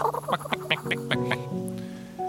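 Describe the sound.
A newly hatched duckling, the first of ten eggs to hatch, quacks in a telling of The Ugly Duckling: a quick run of short, squeaky quacks followed by a few longer, drawn-out peeping calls, clear and fairly loud with no talking.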